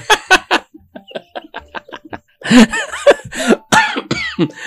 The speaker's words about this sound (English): Oh my God, you're making me sneeze. You're making me go all over the place.